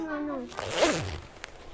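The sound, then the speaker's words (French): A coat zipper rasps in a quick pull lasting under a second, right after a brief voice, followed by a faint short tick. “Il y a des manteaux, on ferme et on les ouvre et on les enlève.”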